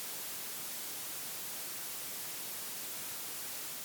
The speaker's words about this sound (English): So, probably the one that most people are familiar with or may have heard of is white noise. Yes. And here's a sample of white noise.